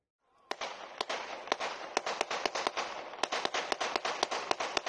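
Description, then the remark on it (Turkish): Rapid bursts of sharp, loud gunshots fire in quick irregular succession, dozens of cracking reports over a few seconds against a steady noisy background, with no voices; a drunk man standing in the basket of a 10-metre crane in the Nilüfer district of Bursa fires into the air. “Alkollü şehir magandası vincin tepesine çıktı çevredekilere aldırmadan etrafı ateş etti.”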